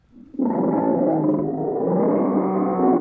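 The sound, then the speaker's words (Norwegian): A person imitates a bear with one long, loud, rough growling roar that holds steady for about two and a half seconds before cutting off. “Dette er bjørn.”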